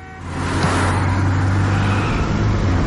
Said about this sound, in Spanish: Otro coche se cruza.